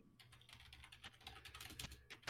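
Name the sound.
clicking on a computer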